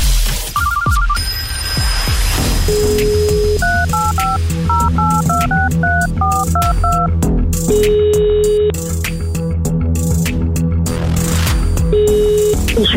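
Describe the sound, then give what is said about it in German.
A rapid run of roughly a dozen telephone keypad tones, a number being dialed in quick beeps for prize calls across Austria, loud over a steady background music bed. “Anita telefoniert ja in ganz Österreich um”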